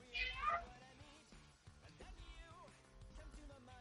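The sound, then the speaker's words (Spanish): A house cat out in a sunny garden lets out a short, high-pitched meow near the start, fairly loud, followed by softer mewing sounds over a steady background of gentle music. “Nuestro gato también quiere aprovechar el solecito y ha salido silenciosamente, como solo los gatos y la vecina que os espía con la oreja pegada a vuestra mirilla por las mañanas saben hacer.”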